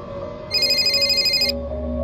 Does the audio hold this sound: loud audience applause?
no